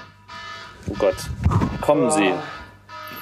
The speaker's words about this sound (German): Alarm, brennt's schon? Nee, das war der Wecker von gestern.